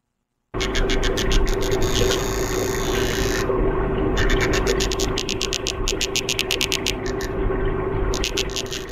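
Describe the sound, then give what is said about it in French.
An underwater recording, made in a tank, of a fish drumming with its swim bladder, a specialized muscle pulling a rib and releasing it to strike the bladder: a steady, loud, low droning hum with a rapid, clicking pulse running through it, continuing without pause for several seconds. “Puis le muscle, vient comme tirer sa côte avec le cartilage, puis pom, le relâche pour que ça vienne frapper sur la vessie en tant que telle.”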